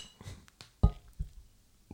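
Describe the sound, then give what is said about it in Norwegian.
A single sharp clink of Corona beer bottles knocking together in a toast, fairly loud, followed by a few faint knocks and rustles, with no talking. “Ironisk nok så drikker vi selvfølgelig korona i dag. Cheers. Skål.”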